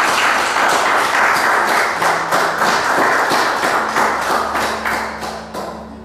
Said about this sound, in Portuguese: Você pode aplaudir o Senhor mais uma vez nessa manhã?